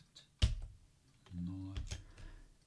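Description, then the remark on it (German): A sharp keyboard key press clicks out, followed by a few softer taps a moment later, with a low murmuring tone humming in between: the F11 and F12 keys pressed on a computer keyboard to mark a block. “Vor der 6, bevor wir die also gehört haben, habe ich F11 gedrückt und nach der 8 die F12.”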